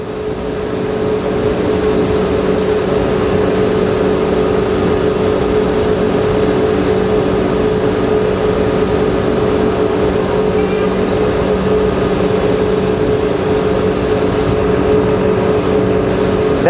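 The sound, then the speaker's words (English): A spray gun hisses steadily while a sunburst finish is sprayed onto a Gibson guitar inside a spray booth, over the loud, constant drone and hum of the booth's ventilation draft, unbroken throughout with no talking. “Yeah, you, you, can see with the draft in the spray booth, he doesn't have to wear a respirator, and it's perfectly safe.”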